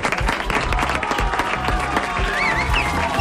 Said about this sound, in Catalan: Vols aplaudir dels alumnes?